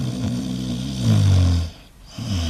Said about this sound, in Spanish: Cuando escuchas ronquidos, te, das cuenta que me estás pegando la chapa, ¿eh?